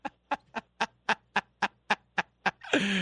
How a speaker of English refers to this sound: I'm going to jump in before you start squeezing the rubber chicken.